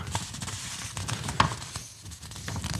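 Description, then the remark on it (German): A sheet of paper is handled, giving continuous soft rustling and irregular crinkly crackles, with one sharper snap partway through and no voices. “Es ist ein Blatt Papier.”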